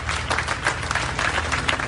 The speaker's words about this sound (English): cheering for the modern day guardians of their history.